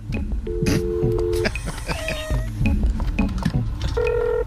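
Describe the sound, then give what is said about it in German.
Several steady electronic telephone dialing tones sound in short bursts over a busy, cluttered background with clicks and noise, fairly loud. “Telefon.”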